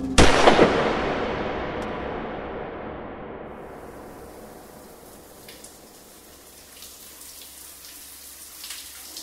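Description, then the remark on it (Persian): A single loud gunshot cracks out as a trigger is pulled, its echo ringing and slowly fading over several seconds into a soft, steady hiss of a running shower. “بدون فکر ماشه را کشید و خون دیوار را پوشان.”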